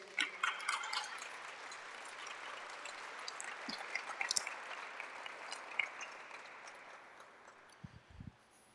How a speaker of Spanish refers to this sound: ¿Alguien puede aplaudir todavía al Señor?